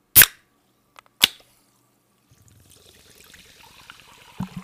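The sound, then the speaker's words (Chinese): Two sharp clicks ring out a second apart, then sparkling water fizzes with a steady, crackling hiss of tiny popping bubbles and a soft pouring gurgle as it is poured to drink as a toast, ending in another brief knock. “让我们听听一听气泡水的声音。”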